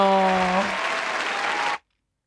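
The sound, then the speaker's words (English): A brief applause sound effect: dense crowd clapping with a few cheering voices at the start, cutting off abruptly after under two seconds. “Damn, bro, we need a whole round of applause, bro. I mean, nigga, nigga cut us short, bro.”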